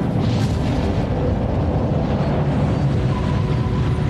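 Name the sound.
rocket launch roar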